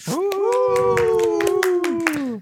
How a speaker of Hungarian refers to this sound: hát képzeljétek el, hogy túlléptük a tervezett 100 ezer lejátszást idén. Ugye azt mondtuk magunknak az előző közönség találkozón, hogy amikor 10 ezer plénél jártunk, hogy az idei évre 100 ezeret szeretnénk elérni, úgyhogy tapsoljuk meg saját magunkat